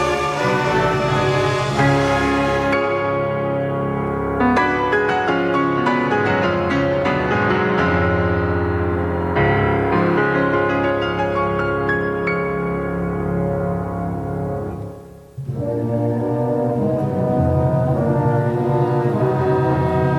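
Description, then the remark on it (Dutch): Grand piano music plays continuously in a rich, romantic, Tchaikovsky-like style, with full sustained chords and a brief dip near the end before it swells again. No one speaks. “Maar dit klinkt als Tchaikovsky als je zo de vleugel hoort.”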